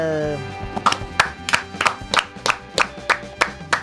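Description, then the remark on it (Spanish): A small group in a studio claps in steady unison for World Freedom Day, about ten sharp, evenly spaced claps, with a brief tonal sound fading out at the start. “Gracias chicos por aplaudir el Día Mundial de la Libertad, bueno, se lo dedicamos a Esperta, a Milei y a toda la gente que defiende la libertad en el país.”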